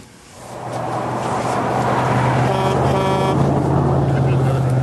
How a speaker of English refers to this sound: Got a truck. I got to go back and see. Uh, another truck driving.